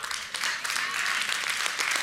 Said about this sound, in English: And the parents here, a couple of them are clapping because they're like, I know.